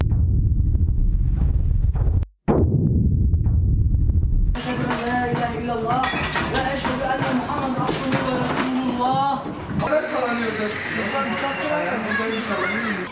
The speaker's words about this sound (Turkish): 6,8 büyüklüğündeki deprem yerin 6,7 kilometre derinliğinde gerçekleşti. Depremin yüzeye yakın olması birçok ilde hissedilmesine neden oldu. 16 ilde birden ve hatta yurt dışından da hissedildi. Sesi böyle kaydedildi depremin.